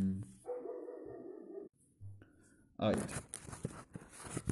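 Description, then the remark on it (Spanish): A dog barks in the background, a loud bark with a harsh, noisy burst near the end, while a voice talks over part of it. “Luego de esta pausa innecesaria. Porque perros ladran”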